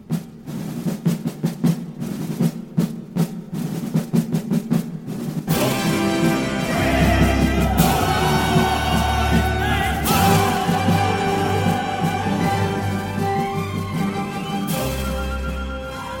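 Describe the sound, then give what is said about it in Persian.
A crisp military snare rhythm taps out a march for a few seconds, then a loud, massed choir bursts in over booming orchestral brass and drums, voices shouting in unison. “صدای مارش نظامی رو میشنویم و بعدش آواز گروه کور که داره فریاد میزنه پسرها رو به خونه برگردونین بچه ها رو به حال خودشون رها نکنین”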